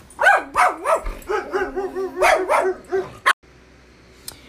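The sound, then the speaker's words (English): Dogs bark and yip in quick, excited, high-pitched bursts, the calls overlapping for about three seconds before cutting off abruptly into near silence with one faint click. “With quieter dogs.”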